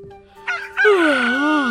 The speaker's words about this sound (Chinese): 哎，公鸡又叫我起床了吗？